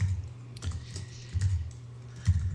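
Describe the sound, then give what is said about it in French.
Someone types on a computer keyboard in short, irregular bursts of soft clicking, with a steady low hum underneath and no voices. “Ah, par contre, alors il faudra pas que tu tapes au clavier pendant le podcast.”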